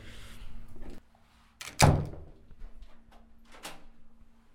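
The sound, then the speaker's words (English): A locked door on a hospital ward, opened with a fob, is released and pushed open with a loud, sharp thunk, followed by a softer latch click and rattle as it swings shut, with faint handling noise throughout. “And go through another set of doors here. And these are all kind of locked doors, so you have to use a fob to unlock”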